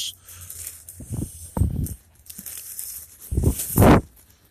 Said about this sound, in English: There's a garbage bag. Uh, shouldn't make a mess.